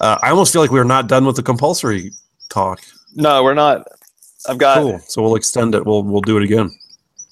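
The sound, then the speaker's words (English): Faint, high morning birdsong chirps trickle in the background, scattered throughout and most noticeable in pauses, while two people talk casually up front. “Yeah, I hear the morning birds chirping away.”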